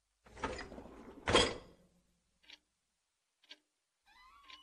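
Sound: door opening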